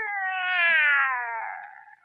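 A single drawn-out cat yowl, loud and rising then slowly falling in pitch, a wavering harmonic cry lasting about two seconds with no one talking over it.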